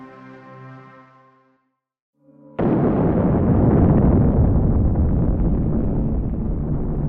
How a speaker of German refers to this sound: Kurz vor 7 Uhr morgens am 1. März 1954 wird der Pazifik von einer gewaltigen Explosion erschüttert. Ein Feuerball schießt mit unvorstellbarer Geschwindigkeit in die Höhe und erleuchtet den Himmel mit dem Licht von 500 Sonnen.